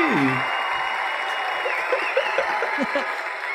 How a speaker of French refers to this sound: on a-tu un bruit de foule pour notre auditoire euh, ben, phénoménal? tranquille aujourd'hui, la foule, mais allez-y, allez-y.